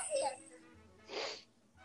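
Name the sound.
sneeze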